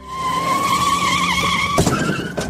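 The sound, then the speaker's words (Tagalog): Car tires screech loudly in a long, wavering skid, then a sudden heavy crash as the vehicle slams into a tree, with the squeal briefly trailing on afterward. “Iniwas ko ang manibela at sumalpok ako sa puno.”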